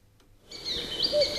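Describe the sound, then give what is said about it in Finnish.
After a brief near-silent moment, recorded birdsong played on a listener's request begins: bright, high chirps and quick whistled trills that keep going at moderate loudness, with no voices. “Linnunlaulujen toivekonsertti”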